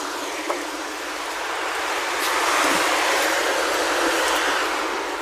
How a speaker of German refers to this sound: Ihr hört es vielleicht, die Autos zischen hier vorbei.